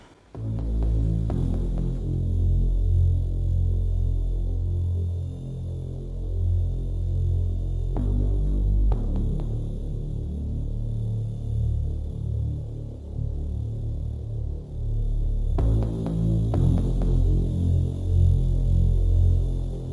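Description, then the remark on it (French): Minimal experimental electronic music: a dense, throbbing low drone with layered humming tones that shifts character every several seconds, steady and fairly loud throughout, with no voices. “Euh, qui est un, pareil, un, musicien électro, euh, un peu comme ce qu'on aura pu écouter, très minimal et expérimental mhm.”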